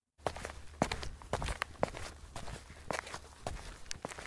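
Footsteps walking behind a group of people at a steady, brisk pace, about eight or nine distinct steps at moderate loudness over a low background rumble, with no voices.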